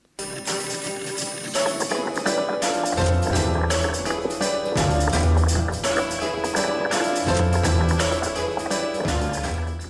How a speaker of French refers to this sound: Pour accentuer cette situation, vous pouvez entendre, en milieu de morceau, un son de claquette qui peut faire penser à des bruits de pas rapides.